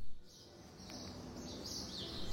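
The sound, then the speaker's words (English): Birds chirp and twitter continuously in the background, a busy chorus of small calls over a steady low outdoor rumble, moderately faint with no talking, at a hotel in Waikiki, Honolulu, Hawaii. “Otherwise, I am fond of island time, and I really enjoy grabbing a coffee from the lobby and seeking different places to camp out and write or just listen to the birds.”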